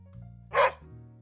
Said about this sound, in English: As you would have guessed, what came out was a bark instead.